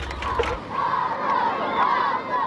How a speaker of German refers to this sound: Das Klatschen und die Anfeuerungsrufe kommen von den einheimischen Kosovaren. Die Stimmung war ja so, wie äh, als in Berlin die Mauer gefallen ist.